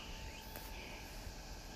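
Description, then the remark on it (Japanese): A continuous, faint outdoor drone of cicadas buzzing steadily, with no voices and no breaks for the whole short stretch, in the season when the cicadas are dying off one by one. “セミの声が聞こえてるでしょうこのセミの声がだんだんと一匹一匹”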